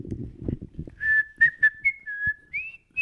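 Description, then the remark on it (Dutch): A person whistles a short, bright jingle melody, several sustained and gliding notes following a brief stretch of low murmuring voice at the start, fairly loud. “Doe even verder de jingle, één moment.”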